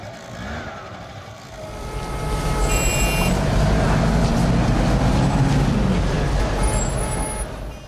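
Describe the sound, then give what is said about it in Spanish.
A motorcycle engine revs up as the rider opens the throttle to head home, holding a loud, rumbling drone that rises in pitch and then eases, over a wash of steady road noise. “Me enfado, doy gas a la moto y zas, a casa.”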